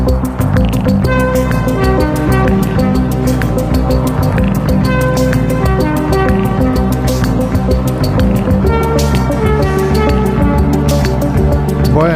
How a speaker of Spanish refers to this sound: Esta música lo que indica es que empezamos ya con las conexiones